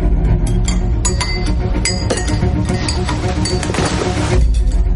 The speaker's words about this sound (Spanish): escucha un estruendo, como si la señorita Alder hubiese caído al suelo